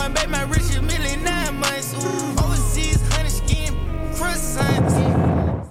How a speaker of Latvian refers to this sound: Nu, šāds gangster raps 2021.